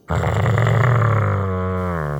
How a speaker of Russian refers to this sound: И в следующую секунду я услышала злобное рычание, и меня почти сбила с ног крепкая туша,